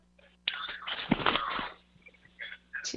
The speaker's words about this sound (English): It sounds like you're doing dishes.